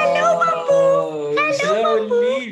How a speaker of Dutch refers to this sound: dit is het geluid dat … en ik maken als er een puppy verschijnt op ons beeldscherm